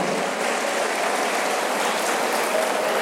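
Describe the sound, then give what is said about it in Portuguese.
An audience applauds steadily at a speaker's call, a dense, even wash of many hands clapping at constant loudness throughout, with no voices or pauses. “Palmas para vocês, sensacional.”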